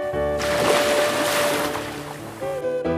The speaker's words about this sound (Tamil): அந்த கடல் அலைகளோட ஓசைக்கு மத்தியில்